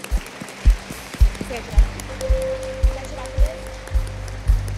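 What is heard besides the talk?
audience applauding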